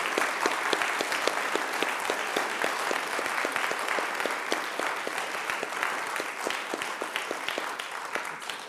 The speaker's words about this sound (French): On, merci, on peut applaudir encore une fois Madame Peters.